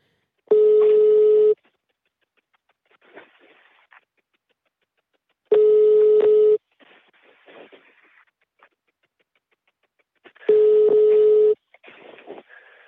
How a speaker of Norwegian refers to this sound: Vi prøver å ringe, men det er ingen som tar telefonen.